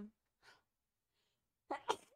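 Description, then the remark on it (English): A sharp sneeze bursts out near the end after a soft intake of breath, preceded by a faint short sound and mostly quiet gaps. “Bless you. Bless you.”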